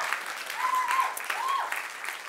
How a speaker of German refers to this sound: Lass dir nochmal einen Applaus geben. Komm mal, sie hat es so gut gemacht. Mega.